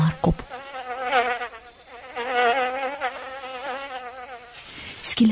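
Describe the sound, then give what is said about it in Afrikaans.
A soft, wavering buzz of a small flying insect drones steadily for several seconds in the warm sunshine, rising and falling in pitch as it moves about, with a couple of brief knocks at the start and end. “So half deur die slaapheen hoor Driekie 'n sagte gezoem alom.”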